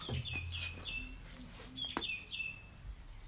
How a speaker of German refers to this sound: Junge Vogel, chill.